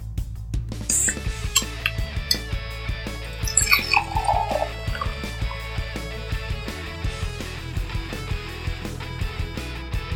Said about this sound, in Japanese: それではね飲んでいきましょう缶を開けてねついでいきます